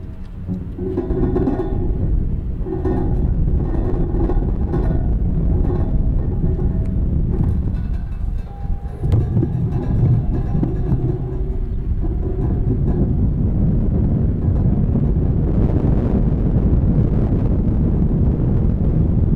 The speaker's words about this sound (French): Et du vent, il y en avait beaucoup ce jour-là.